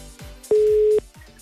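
A single steady electronic ringback tone sounds for about half a second, clear and prominent, over a quiet background of faint low noise, as an outgoing phone call from The Voice to a listener rings.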